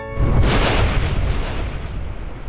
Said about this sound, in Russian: На следующее утро Бельчонка Фому разбудил гром.